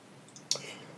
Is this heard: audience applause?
no